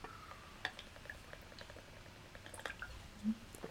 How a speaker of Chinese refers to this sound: 唉，一想到这，只好再喝一口咖啡。